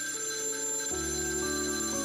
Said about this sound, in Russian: Около полуночи женщина разбудил телефонный звонок.